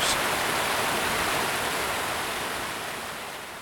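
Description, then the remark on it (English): A dense, steady roar of rushing water, like a powerful waterfall, depicting the great waterfall above San Benedetto dell'Alpe, fills the whole clip loudly and continuously, easing off slightly toward the end. No voices. “roaring up above San Benedetto dell'Alpe, falling down in one great waterfall where there might have been instead thousands, just so down that steep bank we found the dark water clamoring so loudly that it could have done harm to our ears.”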